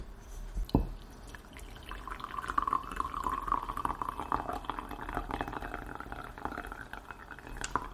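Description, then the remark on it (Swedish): A light clink, then a steady stream of tea poured into a cup, its gurgling filling sound running for several seconds before tapering off, with no one speaking. “Men nu ska det här vara färdigt så nu kan vi hälla upp.”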